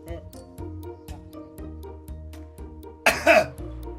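A single short, harsh cough bursts out near the end, loud and close, over a steady rhythmic music bed with a pulsing beat running throughout.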